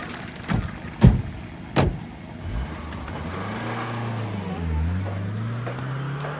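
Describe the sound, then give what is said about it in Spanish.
Three heavy car door thuds land in quick succession, then a car engine rumbles to life and hums steadily, its pitch rising and dipping slightly as it idles and maneuvers while the car is being parked. “mientras su padre estacionaba el auto.”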